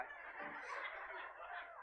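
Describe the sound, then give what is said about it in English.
During a church lesson on the sounds of the Bible, a person imitates a chicken with a steady, squawking cluck that runs for about two seconds without pause, heard fairly faint, with no other talking. “Can anybody else make a chicken noise over here?”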